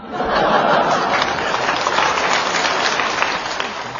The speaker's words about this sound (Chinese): 这鼓掌的都是有同感。